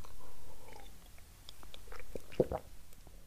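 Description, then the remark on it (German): Someone drinks, with a few quiet gulps and wet mouth clicks spaced irregularly over a few seconds, and no talking. “Ich muss mal was trinken.”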